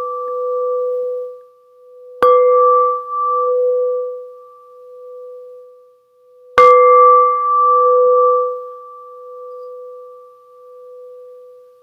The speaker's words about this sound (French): Voyez voir un peu ce qui va se passer avec le son de la cloche.